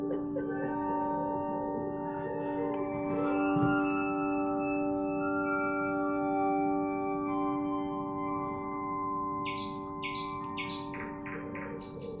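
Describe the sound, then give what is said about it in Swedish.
Nightingale song: a run of bright, sweeping whistled notes comes in toward the end, repeated quickly over a steady, humming drone of sustained tones, with no one talking. “Här har vi ju en känd fågel som gör, man hör ett ljud av en näktergal så är man genast liksom där va?”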